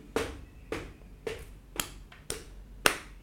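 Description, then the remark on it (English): Six sharp taps at a steady walking pace, a mix of footsteps and hand claps, with quiet gaps between them and no talking. “Okay, those are my those are my footsteps and that's my hand.”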